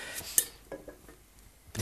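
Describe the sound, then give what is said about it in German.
A pan and wooden lid rattle and knock on a stove in a few quick, uneven clatters, ending in a louder, sustained rattle. Moderately quiet, with no talking. “Die Pfanne und der Holzdeckel ergeben einen wunderbaren Resonanzkörper.”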